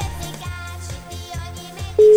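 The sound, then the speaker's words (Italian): Music plays for about two seconds, then a loud, steady telephone ringing tone cuts in at the very end as an outgoing call to a gas cylinder plant starts to ring. “Ultimo squillo, eh, chiudiamo.”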